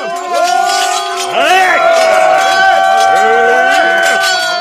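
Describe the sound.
A loud, dense clamor of many shouting male voices, overlapping yells and cries swelling together in a continuous uproar as soldiers armed with swords and battle axes charge into a fight with archers.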